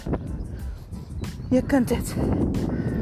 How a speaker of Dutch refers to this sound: Sorry voor de wind. Maar ja, daar heb ik ook geen controle over.